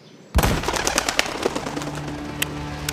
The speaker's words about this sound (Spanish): El cazador disparó con su escopeta, pero la munición chocó contra un árbol frondoso.